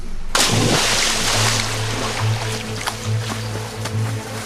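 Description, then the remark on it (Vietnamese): A heavy splash as Ly Thuong Kiet, a knife clenched in his teeth, plunges into the cold water of the Nhu Nguyet River in 1076, followed by sustained churning and bubbling. A low hum runs steadily underneath, with no voices. “Năm 1076 Sông Như Nguyệt Đại diệt Lý Thường Kiệt buộc mái tóc dài Cởi áo rồi cầm lấy con dao bén từ tay Tâm Phúc Nước sông hôm nay rất lạnh Ông hít một hơi thật sâu Cắn chặt chui dao rồi nhảy ầm xuống nước”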